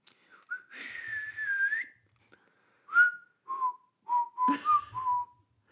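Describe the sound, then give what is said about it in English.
A man whistles a short melodic tune: one long wavering note, then a string of shorter notes with brief pauses, clear with no talking. “shutting his eyes, broke into a whistle again.”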